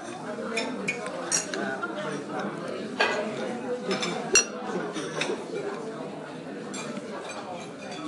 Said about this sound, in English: This is the sound of breakfast.